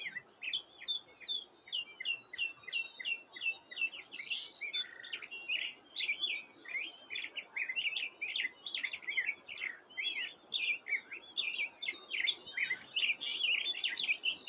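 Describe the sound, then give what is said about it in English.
A black-headed grosbeak sings continuously, a rich run of warbled, varied phrases rising and falling over soft outdoor ambience, recorded with a pair of tree-mounted microphones, steady throughout. “That's a, a um, black headed grosbeak, which is kind of a He's kind of creative like a mockingbird.”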